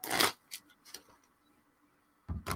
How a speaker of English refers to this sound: I'm shuffling the deck because I'm not getting the same fucking card twice.